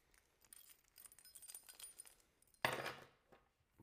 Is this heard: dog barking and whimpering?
no